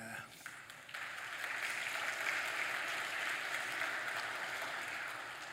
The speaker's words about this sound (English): The applause goes to her. She's, she's bore the burden of this relationship much more than me.